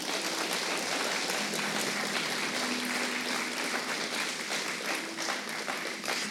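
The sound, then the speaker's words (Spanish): A crowd claps steadily and loudly for several seconds, applauding for the king, a dense wash of many hands with no pauses and no speech over it. “Dáselo fuerte que es para el rey.”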